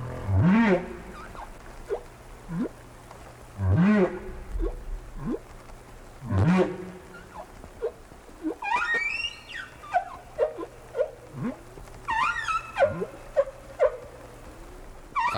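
Whale song recorded about 10 years after an earlier recording, in the same place and of the same species: a sequence of eerie rising and falling moans, squeals and low pulsing grunts repeating in phrases, with no voices over it.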